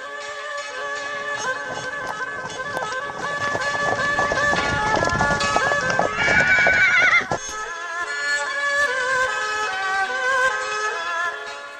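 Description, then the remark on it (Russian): Rapid hoofbeats of a horse galloping along a country road among fields pound steadily, then a loud, high whinny rises over them before the galloping continues on its own. “И вот между деревьев, потом вниз, скачешь по проселочной дороге среди полей, нив, чувство, которое потом как-то держит тебя в тонусе год.”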